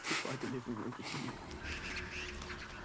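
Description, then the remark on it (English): A person imitates bird calls with a burst of nasal, quack-like squawks in quick succession, fairly loud, followed by a softer stretch of breathy noise. “Got a bunch of birds. Birds. I'm the bird.”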